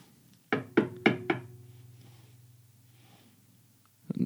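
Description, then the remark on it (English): Four sharp knocks on the door of a house in quick succession, fairly loud, followed by a low lingering hum and quiet, then a brief rustle at the end. “when you knock, you're instantly teleported about three feet forward, seemingly, into the foyer of this house.”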